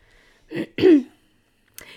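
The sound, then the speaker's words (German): A couple of short, throaty coughs from a person with a slight cold, the second louder and rougher, followed by a quick faint breathy sound; no talking. “nee, was ich erzählen wollte, ich bin ein bisschen erkältet deswegen, aber das, ja, hört man.”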